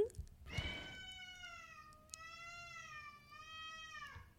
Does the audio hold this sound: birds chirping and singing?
no